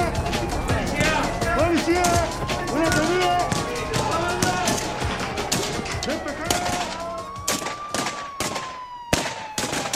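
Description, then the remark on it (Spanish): Rapid, dense bursts of gunfire crack out over ten seconds, loud, some shots clustering into quick volleys, while voices shout underneath and a rising whistle-like tone sweeps through. “Empezaron los tiros.”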